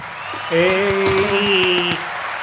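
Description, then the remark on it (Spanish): A short applause sound effect with a series of sharp, rhythmic claps over a steady humming tone, lasting about a second and a half with no talking over it. “Un eh, aplauso.”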